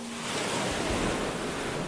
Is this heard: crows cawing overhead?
no